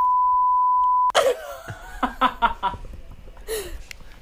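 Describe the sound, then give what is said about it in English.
A loud, steady, single-pitched censor bleep over a person's name holds for about a second, then cuts off abruptly into bursts of laughter and people talking. “you please leave that all in, but just make a really loud bleep noise over her name?”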